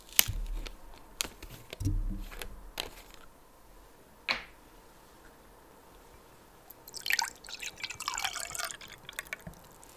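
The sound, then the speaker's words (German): Forbro Bubblegum drink is poured into a glass, with scattered drips and light clinks early on, then a sustained gurgling splash of liquid filling toward the end, all fairly quiet with no talking. “Dazu erzähle ich, ich gieße es ein hier für den Podcast.”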